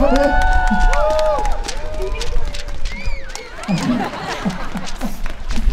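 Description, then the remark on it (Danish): A live crowd cheers and claps, with rising whoops and excited shouting over a steady wash of applause that stays loud for the whole stretch. “Det kan I godt lige give ham en kæmpe hånd der.”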